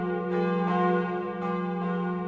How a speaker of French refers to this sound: Pour la première fois depuis des décennies, des siècles sûrement, les Parisiens n'entendront pas, pour quelque temps en tout cas, les cloches de Notre-Dame sonner à chaque heure.